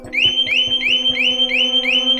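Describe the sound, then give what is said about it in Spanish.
A loud electronic alarm, set off by pulling its lever, rings with a shrill tone sweeping upward in quick repeated pulses, roughly three per second, over a steady low hum with no one speaking. “Antes de que dispare, he llegado a la alarma y tiro de la palanca para activarla.”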